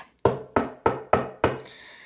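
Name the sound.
knocking on a door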